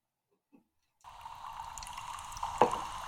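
Water is poured steadily into a glass after a moment of quiet, a continuous splashing fill with a small clink near the end and no voices.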